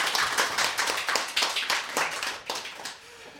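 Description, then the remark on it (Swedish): An audience applauds steadily after a song performance: many overlapping hand claps form a dense, crackling patter that holds at an even level, then thins out slightly toward the end. No one speaks. “En extra applåd!”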